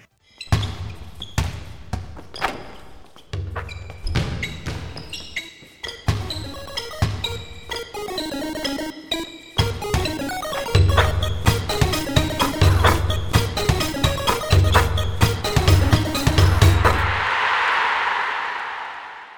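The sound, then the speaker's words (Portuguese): Upbeat musical intro jingle for a basketball show, about twenty seconds long, punctuated by rhythmic basketball bounces throughout, building in energy and ending with a brief hissing noise burst. No voices. “Então taca a vinheta.”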